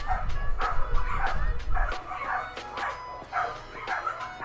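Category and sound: animal, dogs barking outside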